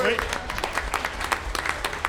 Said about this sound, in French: On l'applaudit pour son oui.